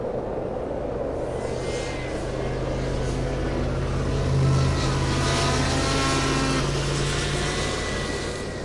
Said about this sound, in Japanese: 秋田鳥海高原に来た目的はスノーモービル免許もいらないし小学生から乗れる